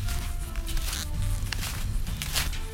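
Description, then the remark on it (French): Rapid crunching footsteps on snow from someone descending in snowshoes, with steady crunches and brushing over a low rumbling background and no talking. “Du coup, c'est pour ça qu'on entend des bruits de pas là. C'est une descente en raquette.”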